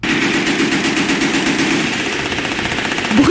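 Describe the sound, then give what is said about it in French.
A loud, sustained burst of rapid automatic rifle fire, Kalashnikov-style, its shots rattling in a steady fast rhythm for several seconds, with a brief rising whine near the end and no voices. “de Kalachnikov, bruit de bottes.”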